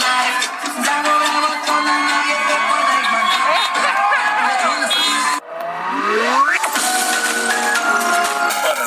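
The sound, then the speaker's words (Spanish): A crowd of people screams loudly and continuously, many voices overlapping in shrill rising and falling cries, with a brief dip midway before the screaming surges back just as intensely. “la gente la mira y empieza a gritar.”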